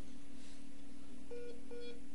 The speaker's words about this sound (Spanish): Ay, se corta, qué lástima. Bueno, este es el WhatsApp.